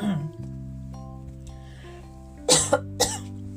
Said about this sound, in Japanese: あすいません咳が出るんですけどあこれやだな前もなったやつだあの前も収録中に 声出なくなって